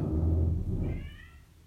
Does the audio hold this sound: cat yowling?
yes